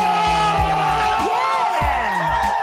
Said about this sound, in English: That's the men cheering. That's them cheering. That was them cheering when they finished the semester.